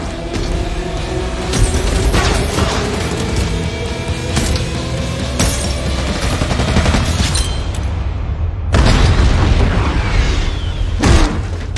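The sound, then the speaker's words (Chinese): A loud landmine explosion, the mine stuck onto a blast-proof glass shield and set off by pulling its cord, amid a sustained, rumbling roar, punctuated by several sharp booming bursts and crackling pops, with a heavy low-end blast near the end and no voices. “只见老索将刚才的地雷粘到防爆玻璃上，举起就冲向尤利安，瞬间拉开引线。”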